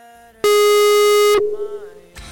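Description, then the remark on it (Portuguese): A phone busy tone after a dropped call: one loud, steady, buzzy electronic tone lasting about a second, then a softer lingering hum with no voices. “Caiu.”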